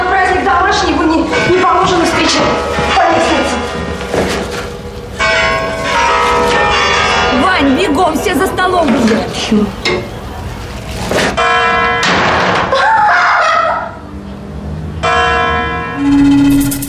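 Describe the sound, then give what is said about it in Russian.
A clock strikes the hour with a series of loud, ringing bell tones whose resonant hum lingers between strokes, while people talk over it. “Уже часы бьют.”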